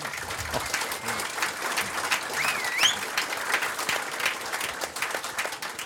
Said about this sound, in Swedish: folk ska behöva vara så populära när de kommer hit så folk måste applådera.